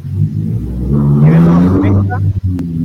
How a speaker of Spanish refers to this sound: No sé a quién, se le pasó un auto por fuera de la casa